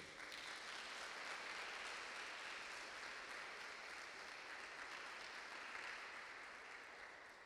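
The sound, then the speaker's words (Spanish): An audience applauds for the Lord steadily for several seconds, a dense crackle of many hands clapping at an even, full volume that tapers slightly at the end. No one speaks over it. “Entonces, denle un aplauso al Señor, por favor.”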